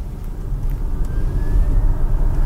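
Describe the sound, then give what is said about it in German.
A quiet Hyundai electric test car accelerating, with a steady low road rumble and a faint, thin whine that slowly rises in pitch as it speeds up. “Und von dem hört man eben auch nicht viel. Weder beim Beschleunigen”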